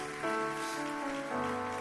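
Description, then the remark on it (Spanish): An audience at a church service claps steadily for their pastors in a dense, continuous wash of applause, while sustained keyboard chords hold underneath and shift twice. No one speaks. “Fuerte ese aplauso para nuestros pastores.”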